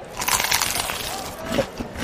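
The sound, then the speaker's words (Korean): Crisp, crackly crunching from biting into fried chicken, eaten with beer at a baseball stadium, a dense burst of brittle crackles repeating over about two seconds at a moderate, steady loudness with no talking. “어머, 너무 크리스피하다. 너무 바삭하다.”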